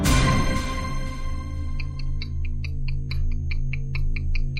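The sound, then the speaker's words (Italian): A clock ticks in a quick, steady rhythm, its crisp clicks starting after a brief burst of sound and continuing over a low, sustained hum. “Le lancette dell'orologio scandiscono inesorabilmente il tempo, che ormai è quasi scaduto”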